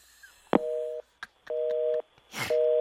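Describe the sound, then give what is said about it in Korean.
A phone line's busy tone after the father-in-law hangs up the call: three steady half-second beeps, evenly spaced, with faint clicks and a short burst of noise between them. “장인어르신은 그렇게 본인 하실 말씀만 딱 하고 끊으셨습니다.”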